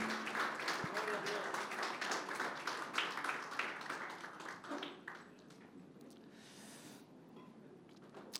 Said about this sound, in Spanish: Amén y amén, Señor. Ese aplauso es de alabanza para el Señor. Aleluya.